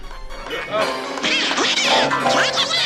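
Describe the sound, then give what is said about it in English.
A cartoon duck voice quacks and sputters in rapid, unintelligible bursts, loud, its raspy squawking pitch swooping up and down for about three seconds. “Does anybody understand what this duck is saying?”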